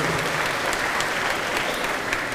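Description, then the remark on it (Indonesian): A crowd claps steadily and densely for a couple of seconds, a sustained wash of many hands applauding for Gajah Mada, with no voices standing out. “Dan pada masa pembelajaran itu boleh tepuk tangan buat Gajah Mada.”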